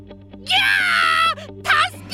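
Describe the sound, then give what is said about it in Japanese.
A loud pained scream as a kite string wrapped around a hand pulls tight in a strong wind: one long, high, strained cry that holds for nearly a second, then breaks off, followed by a shorter second cry, over a faint steady hum. “星花もぐらが慌て始めたその時強い風が吹いてきて星花もぐらは急に苦しそうに悲鳴を上げました”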